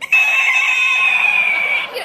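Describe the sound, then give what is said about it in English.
A voice imitates the squeaky windshield wiper of a Chevrolet Chevette with one long, shrill, sustained whine that holds a steady high pitch for about two seconds before cutting off. “It had an AM radio on the redeeming value of the whole car, and it had a windshield wiper. and it would work like once every four months, uh, whether it was raining or not.”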